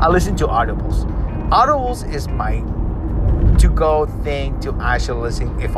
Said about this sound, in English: as you can hear, you can sound you can hear the sound of my car.